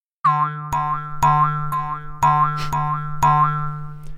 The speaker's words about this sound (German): Das ist ein Kaninchen-Sound im Comic zumindest, wenn die so hüpfen. dachten uns, das ist eine super Idee, den als Sound einzuspielen.